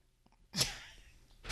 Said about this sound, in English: you almost sneezed into the fucking shot glass.